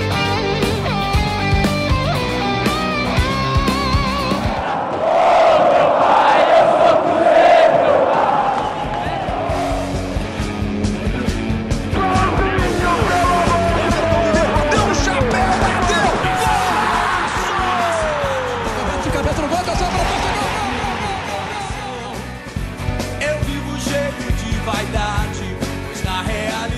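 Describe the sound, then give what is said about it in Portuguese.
A lively produced intro jingle of about 27 seconds, loud and dense with layered music, a sweeping whoosh early on and gliding synth tones midway, with voice-like snippets mixed in. “E vamos lá, solta a vinheta e vamos começar.”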